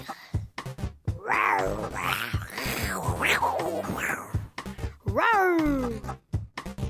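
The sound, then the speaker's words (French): A person imitates a tiger's roar with several drawn-out, growling yowls in a row, ending in a loud, falling cry. The voice is fairly loud, with no talking. “Je vais imiter le tigre.”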